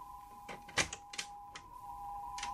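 A door being opened by a person with trembling hands: a quick series of sharp clicks and clunks from the latch and handle, over a steady faint electrical hum, with no voices.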